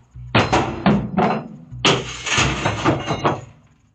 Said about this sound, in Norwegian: Og så har han også en overvåkningsvideo fra boligen sin, og der kan man se at en person kaster stein mot eh, huset.